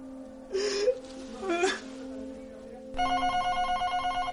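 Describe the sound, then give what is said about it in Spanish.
A few breathy, whimpering sounds come first, then a telephone in a living room starts ringing with a steady electronic trill that pulses rapidly. The ring is fairly loud, with no talking. “Al día siguiente, el teléfono suena en el salón.”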